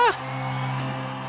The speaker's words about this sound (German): Er beginnt ein anderes Lied. Das Publikum beginnt zu schreien, ja!